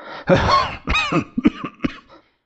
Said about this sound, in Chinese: 一阵猛烈的咳嗽，像喉咙里在着着火。烧得他满脸通红